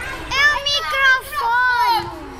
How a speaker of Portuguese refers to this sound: Um grupo de miúdos à volta de um microfone no recreio de uma escola em Lisboa